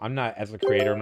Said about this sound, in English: I just realized my gog is open, and that was the sound of someone adding me a gog. Let me exit. oh, I'm so busted that I've got the the launcher up